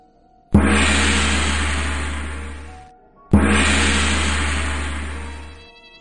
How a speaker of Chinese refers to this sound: 两声锣鼓声传来，紧接着就是唢呐开路的声音。妈的，真晦气！这几天天天吵，今天终于舍得埋了。